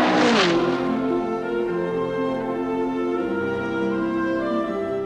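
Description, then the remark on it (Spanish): A race car engine revs hard, its loud harmonic whine shifting pitch as it climbs and settles, with a sharp burst of noise at the start and no voices over it. “Es una música, el motor, es algo que no se puede escribir mucho, sobre todo cuando el auto le está dando satisfacción.”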